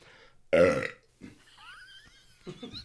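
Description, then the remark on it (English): A loud, deliberate burp bursts out for about half a second, followed by quieter rustling and a faint whistling tone. “How many of you can make yourself burp?”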